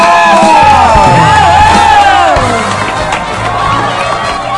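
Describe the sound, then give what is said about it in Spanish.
A loud TV program audience cheering and applauding for an iconic character of the show, with many overlapping shouts and whoops rising and falling over steady clapping, slightly easing off in the second half. “Quiero pedir un fuerte aplauso, por favor.”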